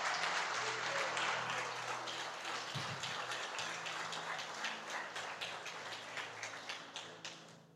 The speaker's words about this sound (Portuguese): Deu uma linda salva de palmas para Jesus.